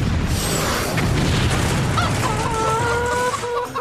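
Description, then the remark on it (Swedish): A barn explodes after being hit by a missed shot: a deep, roaring explosion rumbles loudly for the whole stretch, with a few thin, high squawk-like tones cutting through the noise in its second half. “Men missade och träffade istället ladugården som exploderade.”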